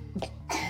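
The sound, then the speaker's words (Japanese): A young daughter, kept home from kindergarten with a bad cough, coughs in the background, a couple of quick, harsh bursts close together against a low steady hum, with no one speaking. “まあ、今多分咳してるんですけども、まあ、しろって言ってるわけじゃないけどしてねはいでちょっと途中で声が入ってしまって恐縮なんですけども”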